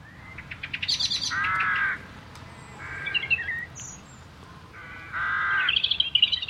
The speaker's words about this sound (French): Alors c'est pas n'importe quel oiseau, hein. ce sont les oiseaux du matin